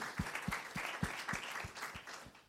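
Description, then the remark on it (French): An audience applauds a speaker, clapping in a steady, even rhythm, roughly nine or ten sharp beats over a few seconds. The clapping is moderately loud, fades slightly toward the end, and no one speaks. “Ben oui, on peut l'applaudir, bien sûr.”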